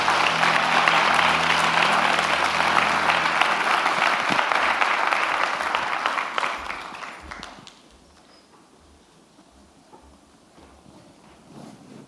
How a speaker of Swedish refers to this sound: Ska vi ge Alex en stor applåd också? Tack. Stort tack.